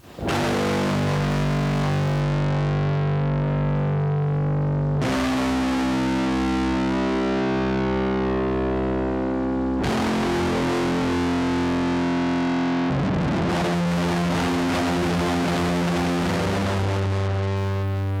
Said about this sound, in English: the transition into the outro has this really harsh, distorted bass that almost sounds like a synth.